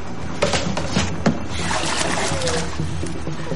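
Water splashes and sloshes in a water tank as a person gets into it, a few sharp splashes early on followed by continuous churning and dripping, moderately loud.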